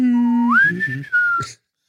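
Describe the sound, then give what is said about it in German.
A person whistles an imitation of a boatswain's pipe, trying the 'Captain on Bridge' call: a steady tone that slides upward, holds high for about a second, dips slightly and stops abruptly, fairly loud. “Ich hätte viel früher pfeifen müssen.”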